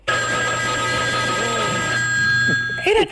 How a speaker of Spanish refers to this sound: Era, era, tremendo. Escuchabas cuatro casas al lado de la tuya que estaba sonando el teléfono.